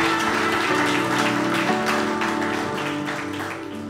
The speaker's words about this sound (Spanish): Vale un aplauso. Qué grande, Señor.